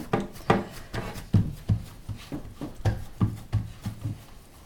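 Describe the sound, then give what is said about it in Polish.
Pizza dough is kneaded and pressed by hand to make it even all over, making a steady series of soft, muffled thumps and rubbing squishes, about two per second, with no talking. “Tak, przegniatamy, żeby ciasto było wszędzie mniej więcej równe.”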